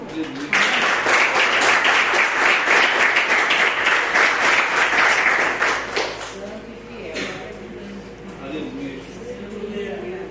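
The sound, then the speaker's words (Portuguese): A church audience applauds loudly in praise of the Lord for about six seconds, a dense burst of clapping that then fades out, leaving quieter murmuring and a voice beginning to speak. “Eu agradeço né, a oportunidade e as palmas que louvam o Senhor.”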